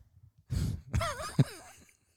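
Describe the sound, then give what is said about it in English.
A wet slurp of water, then a gurgling gulp with a sharp swallow click, trailing into a satisfied breathy sigh. No words are spoken. “all right, take a okay, now take great. a big disgusting sip of water that we can all hear.”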